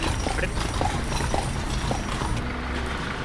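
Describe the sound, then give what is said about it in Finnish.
Steady clip-clop of horse hooves on a hard town street, evenly paced, over a constant background of traffic and city noise, as the horses travel through a town. “Tämä on ihan mahtavaa, me ollaan viisi minuuttia ajettu tässä näin ja lähestulkoon jokainen vastaantulija ja noista liikkeistä sisältä työntekijät moikkaa.”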